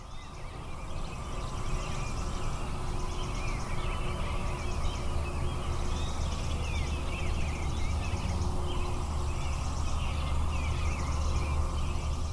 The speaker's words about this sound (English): Well, there are a lot more birds there, but it's pretty hard for me to hear them. That's right. but what you do hear is the traffic from the interstate.